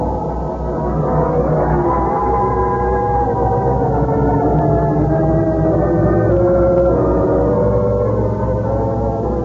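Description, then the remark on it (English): A long, loud creaking door groans steadily for several seconds, its drawn-out wavering tone sliding slowly in pitch, with no voices over it, introducing the spine-chiller radio program The Creaking Door. “The creaking door.”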